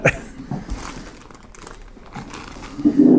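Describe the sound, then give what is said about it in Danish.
A plastic bag of Herkules bread (Herkulesbrød) crinkles and rustles in irregular bursts as a slice is taken, with soft crackling throughout and a louder rustle at the end. “Jamen, skal vi tage en skive?”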